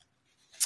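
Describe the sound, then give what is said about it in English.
A single quick, crisp papery rustle of a notebook page being turned, rising briefly and fading, with quiet stillness before it and no voices. “Just turning the page of my notebook here. If you hear that in the background”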